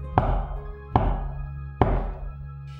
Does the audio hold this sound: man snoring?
no